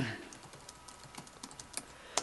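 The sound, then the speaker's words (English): Rapid, irregular clicking of keys on a computer keyboard, fairly quiet, with a few sharper taps standing out near the end; no one speaks. “I'm typing it.”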